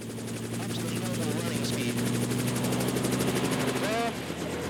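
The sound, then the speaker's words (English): A helicopter's engine drones steadily with a low hum and a rapid rhythmic rotor chop, loud and continuous throughout, with faint voices mixed underneath, as the pilot raises the lever and the helicopter nears takeoff. “the wings are, the rotors are harder to push through the air, so we need to push them harder as well.”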